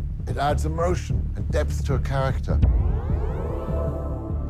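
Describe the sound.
A voice speaks briefly, then a synthetic, futuristic electric car motor sound swells in, layered tones steadily rising in pitch like a smooth sci-fi whir, moderately loud and continuous.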